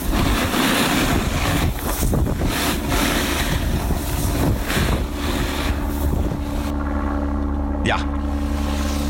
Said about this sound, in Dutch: En als je dit hoort, een helikopter, dan is het meestal geen goed eh, teken, want dat, eh, dan is er een ongeluk gebeurd. Maar dat dit zijn dus, gipsvluchten. Ja, dat zijn gipsvluchten.